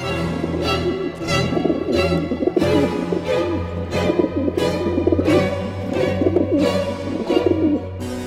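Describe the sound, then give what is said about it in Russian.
Pigeons coo in a steady, repeating rhythm, a soft throaty burble that pulses again and again with no voices over it. “Там голуби да. мрут.”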